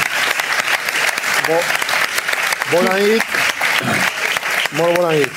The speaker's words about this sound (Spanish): Infinitas gracias a Ferran Adrià, un aplauso enorme para él.